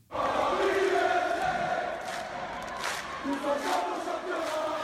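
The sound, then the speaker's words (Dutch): A dense stadium crowd of Paris Saint-Germain ultras chants in unison, a loud sustained roar of many voices with rising and falling sung phrases and occasional sharper shouts cutting through. “Want de club is dan misschien niet populair bij het grote publiek, Paris Saint-Germain heeft een fanatieke aanhang die veel kabaal maakt tijdens thuiswedstrijden.”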